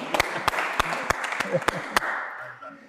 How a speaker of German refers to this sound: Viel Power, komm einmal Schön Applaus kommen.